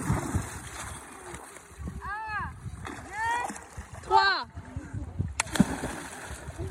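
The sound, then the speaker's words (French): Excited children's voices call out over open-air water noise, followed by a sudden splash as one of five children plunges off a boat into the water for a swim on a hot, sunny day. “Notre bateau se transforme en plongeoir géant et les cinq s'en donnent à cœur joie.”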